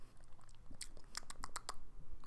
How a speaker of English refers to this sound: So I'm gonna go ahead and give it a little sip, sip.